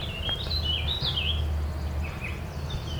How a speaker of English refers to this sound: Warbling vireo it is.